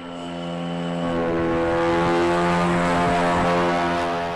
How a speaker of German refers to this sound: 2019 in einer Versuchshalle des Jet Propulsion Laboratory JPL in Kalifornien. Ein kleiner Hubschrauber hebt ab zu einem Versuchsflug. Nur zwei Jahre später dreht der Helikopter Ingenuity seine Runden über dem Mars